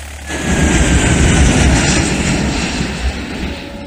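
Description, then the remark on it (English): A loud airplane roars overhead beside the airport at Coolaroo, a broad rumbling engine drone that swells within the first half second and holds steady, with a faint whining tone riding above the roar. “They reckon the planes put people off”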